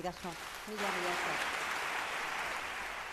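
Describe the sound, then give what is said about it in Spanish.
A voice speaks briefly, then the audience at the event breaks into a long ovation, a dense steady wash of clapping that continues without pause to the end. “Recibía una larga ovación.”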